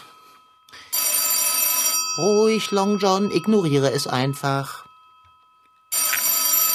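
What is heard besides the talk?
telephone ringing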